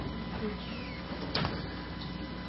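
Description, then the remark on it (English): A door slides and shuts with a single muffled thud partway through, over steady background noise and a faint murmur of voices. “And I also like to close that door on that side. You can close them both if you want.”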